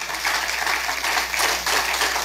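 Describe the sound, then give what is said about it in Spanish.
An audience at a church service applauding the Lord steadily, a dense wash of many hands clapping at once with no pauses, loud and sustained throughout. “Es decir, dele ese fuerte aplauso al Señor.”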